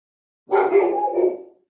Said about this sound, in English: Goomba is pumped. That's Mike's dog. Mikey's dog is fired up for the interview.